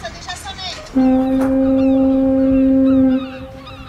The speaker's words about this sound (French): Il te ressemble car on a mis en place une sonnerie spéciale. Elle a été conçue pour toi. En ton honneur, la fin des cours rime avec des cris de mouettes et des cornes de brume.